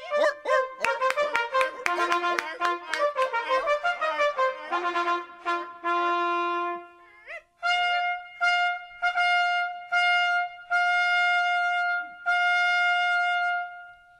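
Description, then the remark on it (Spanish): Seals barking loudly, a burst of rapid overlapping barks giving way to a steady series of longer, honking calls, with no talking. “Ahí están, señores. Eh, focas”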